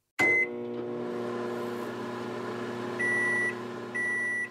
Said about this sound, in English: She cracked the eggs in a jug and placed the jug carefully into the microwave.